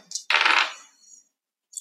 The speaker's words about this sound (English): All right, hold on, I can't roll Chex Mix, so I have to grab some dice. I roll two.